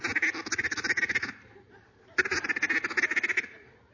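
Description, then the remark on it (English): A duck call blown in two fast, loud bursts of rapid quacking notes, a comeback call used in duck hunting as ducks bank, with a short pause between them and no voices. “That's the comeback call. That's when they're banking.”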